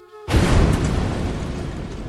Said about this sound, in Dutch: Mijn oom Bassam verlaat zijn huis in de Palestijnse stad Nablus om naar zijn gemeentehuis te gaan. Op het moment dat hij zijn auto start en de koppeling indrukt, ontploft een bom.